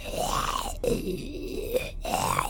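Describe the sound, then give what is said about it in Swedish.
A person imitates a zombie with a drawn-out, guttural groan that rises and falls in pitch across three moaning swells, fairly loud, with no other talk. “Och bakom kolonistugan till vänster om er så ser du hur en odöd börjar harva sig runt eh, husknuten.”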